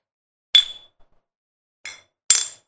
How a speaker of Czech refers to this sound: Cheers na to. Ty vole. Opět. Na to, na to, si, na to si ťukneme.